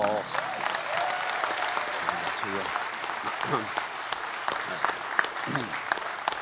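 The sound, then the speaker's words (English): A large audience in a church claps steadily in a sustained round of applause, welcoming a newly born-again man into the church family, dense and fairly loud throughout, with scattered voices murmuring beneath the clapping. “All of you who would accept him into this church family, why don't you express that with a round of applause?”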